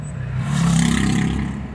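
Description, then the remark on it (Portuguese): Steady low engine rumble heard from inside a car stopped at a traffic light, a continuous idling drone with faint harmonic hum that swells slightly midway, with no voices present. “Agora eu não tô dirigindo, tô meio que parado, esperando um semáforo.”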